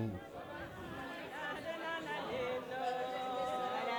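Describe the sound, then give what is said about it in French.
A crowded bar full of overlapping chatter, with several voices singing together in sustained tones through the noise, steady throughout. “Voilà, là on entre dans le bar, ça chante.”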